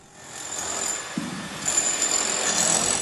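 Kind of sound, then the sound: tool, power drill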